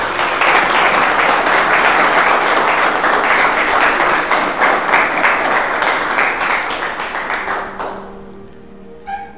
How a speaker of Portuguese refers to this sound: Dê um aplauso à palavra do Senhor.